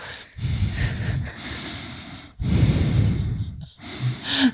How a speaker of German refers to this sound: Das Alter, darf ich noch atmen? Ich schnaufe irgendwie, gell? Vielleicht ja. bin ich kurzatmig schon.